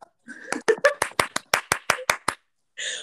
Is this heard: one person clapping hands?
yes